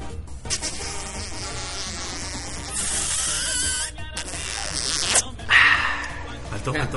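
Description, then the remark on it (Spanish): A voice imitates a kiss with a long, buzzy, exaggerated smooching noise, loud, swelling into a few wet bursts near the end. “Ese es el besito cachichurris, más chichurris que chirris”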